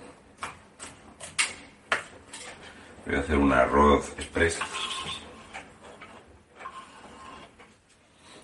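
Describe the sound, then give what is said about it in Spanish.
A knife chops garlic on a board in a series of sharp, uneven taps, pausing while a man speaks briefly, then resuming with quicker, lighter cuts. “Y estoy picando ajo.”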